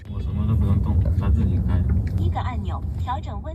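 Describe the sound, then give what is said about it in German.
A fully autonomous self-driving car with no driver moves through normal city traffic in Shenzhen, China, with a steady low rumble of engine and road noise throughout, while a voice talks over it. “Das Auto fährt ohne Fahrer, vollautonom im normalen Stadtverkehr.”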